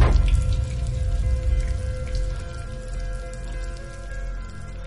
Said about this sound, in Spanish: Una tubería de la pared se rompe. Arranca la taza. La tira y cae al suelo. El agua brota de la tubería.